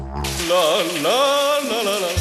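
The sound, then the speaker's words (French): Steady hiss of ice-cold shower water spraying, while a voice lets out a long, wavering exclamation over it throughout. “Ah, quand tu prends l'eau glacée d'un coup, là, La détente.”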